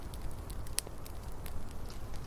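A campfire crackles steadily with scattered sharp pops, one louder snap standing out, over a low rumbling bed of flame noise, with no voices.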